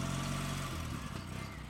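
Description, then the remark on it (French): A motorcycle engine runs loud, its low throaty drone shifting in pitch partway through as it revs, with no voices over it. “Vous savez, celui qui m'avait marqué à tout jamais, quand il repartait de chez moi sur sa moto”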